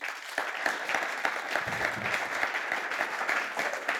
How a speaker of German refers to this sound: Lass auch Ihnen einen äh, warmen Applaus geben.